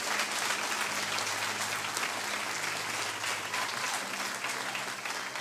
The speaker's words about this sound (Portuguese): Ah, você vai aplaudir, aplaude.